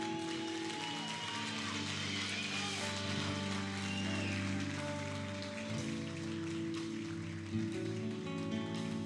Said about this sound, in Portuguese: Aplauda o Senhor.